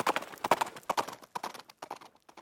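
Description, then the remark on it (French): A small donkey's hooves gallop around a circus ring at a quick, steady rhythm, each stride a cluster of sharp thuds on hard ground, thinning out toward the end, with no talking. “Au galop Et Pinocchio prit le galop.”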